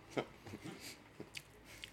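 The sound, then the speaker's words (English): Wet chewing of a mouthful of pizza: a few soft squishy bites and crunches at an uneven pace, with mouth noises and faint breaths between them and no talking. “Oh, I gotta chew this one.”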